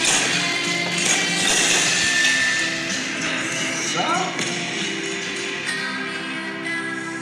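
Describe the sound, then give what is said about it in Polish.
Gravel crunches underfoot in a steady, dense stream of gritty scraping for several seconds, fairly loud, like someone walking continuously over a loose stone path. “Ale myślałem, że będzie jakaś śmieszna kwestia po tym skrzypieniu żwirza.”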